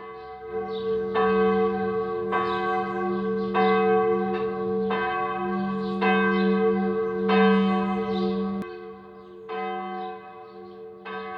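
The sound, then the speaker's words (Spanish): The large bells in the bell tower of Murcia Cathedral, Spain, ring out in a steady, repeating peal, each strike roughly a second apart with rich, humming overtones that linger, then the ringing fades toward the end. No voices are heard. “Si algo destaca de la ciudad de Murcia es sin duda su catedral y de ella el magnífico campanario, el cual se sitúa por encima de muchos altos edificios de la ciudad del Segura.”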